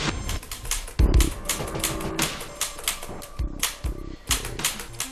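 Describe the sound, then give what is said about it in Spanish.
Typewriter keys clack in rapid, uneven bursts, with a few heavier thunks as the carriage or bar strikes. Fairly loud, with no voices. “En una máquina de escribir hace ya mucho tiempo se relató una de las mayores humillaciones que hubo en la historia de la medicina.”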